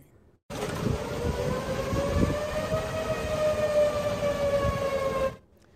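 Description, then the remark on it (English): Tornado warning sirens in the Fort Worth and Dallas area as a line of tornadoes with powerful wind gusts passes: a sustained wailing siren drones steadily with a rich harmonic tone, its pitch slowly rising and easing, over a low rumbling wind-like background. No one speaks. “You can see the dark clouds forming as a funnel, lightning flashes, and of course, tornado sirens sound.”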